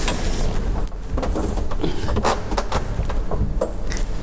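A pipe organ's original blower turbine, dating from 1924, is started with a green button and runs with a loud, steady low rumble and a broad whooshing hiss, scattered with small clicks and rattling knocks throughout.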